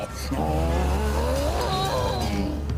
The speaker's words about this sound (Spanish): la escuela, el tráfico. ¡Cuidado con la guagua! Llegamos a Santo Domingo y vamos de nuevo.